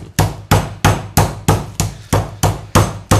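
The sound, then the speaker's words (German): Steady, evenly spaced thuds of a mallet pounding chicken meat flat, about ten loud dull blows with a slightly wet slap, repeating in a regular rhythm with no talking. “Weil wenn du es von oben klopfst, dann zerdrückst du das alles nur und hast nicht so viel Gefühl mit dem Auseinanderklopfen.”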